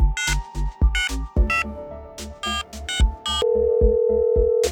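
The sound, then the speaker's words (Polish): Electronic telephone tones as a call goes out: a quick series of bright beeps and chimes, followed by a steady, sustained ringing tone, fairly loud, with no one talking. “W treści proszę koniecznie do mnie zadzwonić i numer telefonu.”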